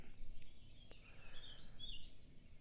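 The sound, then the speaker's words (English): Faint birds chirping at sunrise by still water, a cluster of short, high tweets rising out of a steady, quiet outdoor hum with a low rumble underneath. “The birds are singing.”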